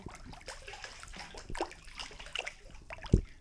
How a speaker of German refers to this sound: und wenn es hier so rumplätschert, dann ist es nicht, weil wir auf dem Klo sind, sondern wirklich immer noch im Pool. Können wir so ein bisschen Poolgeräusche, Poolgeräusche zeigen. Poolgeräusche in der freien Natur.